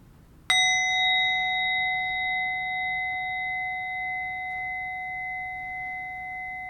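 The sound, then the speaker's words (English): A single meditation bell is struck once to complete a meditation, ringing out clear and sustained, its pure tone slowly fading over several seconds in a quiet space. “And we'll complete our meditation with the sound of the bell.”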